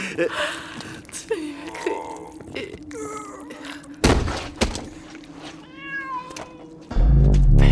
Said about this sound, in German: Eine Katz. Das ganze Geschrei nur wegen einer Katz.